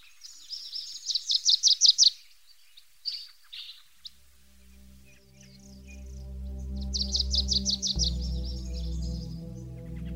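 A bird sings a quick, bright trill of rapid repeated chirps, pauses, then trills again; midway a soft, low musical drone fades in and continues beneath the second burst of song.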